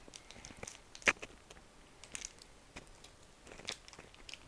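Someone chewing and crunching a self-made combined breakfast and lunch, with no talk, a string of irregular crisp bites and mouth noises, one sharp, loud crunch standing out near the start among softer ones.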